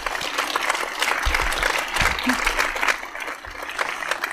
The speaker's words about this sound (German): Auch ihr einen ganz großen herzlichen Dank und Applaus, bitte.